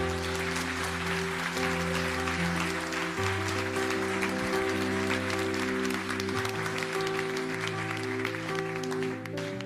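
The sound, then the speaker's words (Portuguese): An audience applauds loudly and steadily for the whole stretch, a dense wash of clapping over sustained keyboard chords that shift every few seconds. “Dê um aplauso bem forte, Senhor.”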